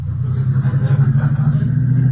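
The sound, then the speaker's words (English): A car engine hums with a loud, low, steady rumble, a faint rise in pitch suggesting gentle acceleration. No voices are heard over the motor. “Keep your mind on your driving.”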